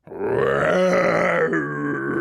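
A dragon roar sound effect: one deep, loud, rasping growl that holds steady for about two seconds, dipping slightly in pitch toward the end. No one speaks.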